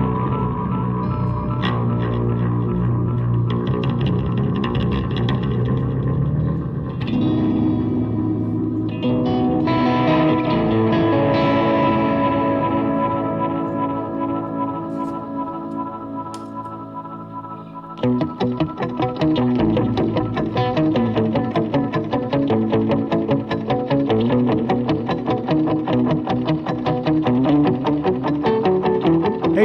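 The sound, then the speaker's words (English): Improvised electric guitar played through effects, with sustained, echoing layered chords that shift partway through into a steady, rhythmic pulsing pattern. It plays alone at an even, fairly loud level, with no talking. “The Sunday Night Guitar ASMR Show LIVE!”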